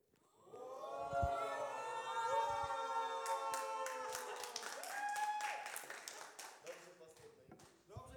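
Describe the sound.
Audience applause breaks out midway, a dense patter of claps rising over voices, then thinning out toward the end as the talking continues.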